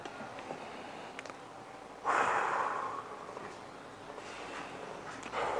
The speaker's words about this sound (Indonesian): Jadi kita nafas hirup dari hidung, keluarkan dari mulut tiga kali berturut-turut seperti ini ya.